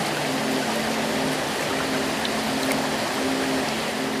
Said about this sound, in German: Mit Leichtigkeit schwimmst du bis zum Wasserfall und stellst dich direkt darunter.